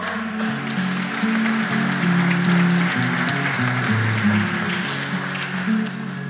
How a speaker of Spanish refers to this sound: Gracias hoy por vuestras palmas.